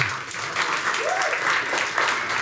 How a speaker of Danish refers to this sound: Giv lige Mark en ordentlig klapsalve.